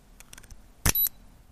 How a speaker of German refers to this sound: Eines der Schlüsselsysteme heißt E-Click der Marke Icon und klingt in der Anwendung so.